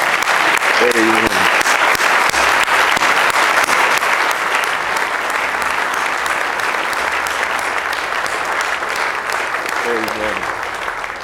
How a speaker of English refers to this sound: Oh, let's give the Lord a hand clap.